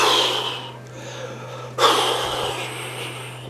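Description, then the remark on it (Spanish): Heavy, excited breathing of a person shaking their body as an exercise: two long, forceful breaths, the second starting sharply and loud, with a steady low hum underneath and no talking. “Que tu respiración se exalte.”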